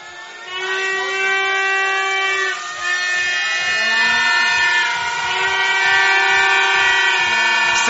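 A loud stadium crowd at an American football game in Stuttgart roars while the home defense is on the field, several horns blaring continuously in long sustained tones, layered over one another for the whole stretch, dominant with no speech.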